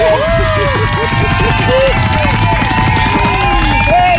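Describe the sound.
Dense crowd noise fills the whole clip, steady and loud, with sustained clapping and excited cheering and whistling rising above a thick babble of voices.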